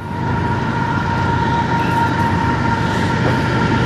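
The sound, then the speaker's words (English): A train rumbles past in a loud, steady roar, with a faint sustained whine riding over the rushing, rattling noise for the whole stretch. No one speaks. “train running by.”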